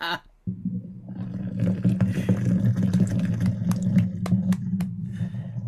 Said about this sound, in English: Excuse me. It's not a, a drum. It's not a drum roll. It's a it's a beer pour.